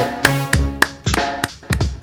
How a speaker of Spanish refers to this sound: Ya está nuestro primer invitado el día de hoy y me da mucho gusto saludar a la distancia y recibir con un fuerte aplauso